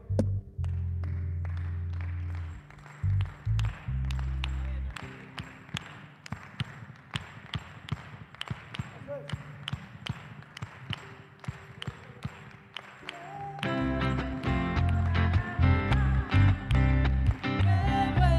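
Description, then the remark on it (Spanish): An audience claps a steady, quick rhythm in unison with their palms during a Christmas song, over a low, droning bass, the sharp palm claps repeating evenly until full band music swells in near the end. “Creo que esto lo podemos hacer acá, con sus palmas. ¿Cuántos pueden hacer esto conmigo acá?”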